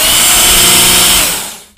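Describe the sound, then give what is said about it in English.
A Work Sharp belt knife sharpener, a belt running along pulleys with a 25-degree knife guide, runs with a steady, loud mechanical whir and a harsh high hiss, then winds down and cuts off near the end. No one speaks. “Sounds like a power tool because it is. It basically is a belt along some pulleys um, and then it has a knife guide in there, and it says uh, 25 degrees.”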